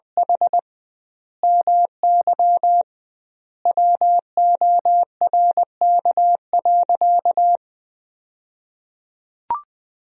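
Steady single-pitch Morse code beeps at 20 words per minute with doubled word spacing, sending sentences built from the 300 most common words; short dots and longer dashes grouped into words with pauses between them, ending with a brief click after a silence.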